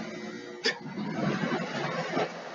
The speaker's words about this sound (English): That was the air conditioner. Anybody there could hear that?